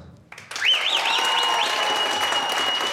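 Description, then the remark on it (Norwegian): A crowd bursts into sustained, loud applause after a brief pause, with an eager audience whistler's shrill, repeated whistle rising and falling over the clapping near the start. “det var, det var en veldig ivrig plystrer hos meg.”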